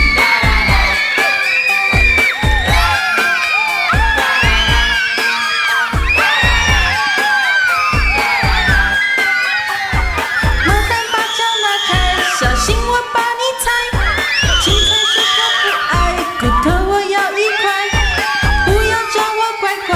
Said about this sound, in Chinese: 来宾掌声鼓励。